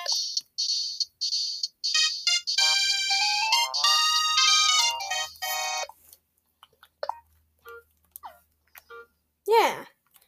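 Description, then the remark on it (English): A short, bright video game music track in Dixieland style, KK Dixie: chirpy repeated beeps lead into a lively melodic phrase, then quiet with scattered blips and a final swooping sound. “And then this is KK Dixie.”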